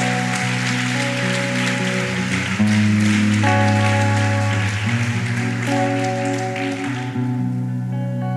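An audience at a church service claps steadily to applaud the Lord, a dense, continuous wash of applause layered over sustained keyboard or organ chords, with the clapping thinning out toward the end.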